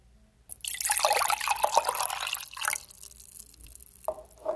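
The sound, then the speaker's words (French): Water splashes and drips from cupped hands, a bright spattering for about two seconds that thins into a few scattered drops, with no voices; made by hand as an ASMR sound. “Je prends dans mes mains. Je fais un petit bruit avec.”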